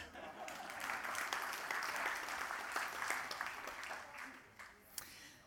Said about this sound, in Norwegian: Bare, altså, bare gi ham en applaus.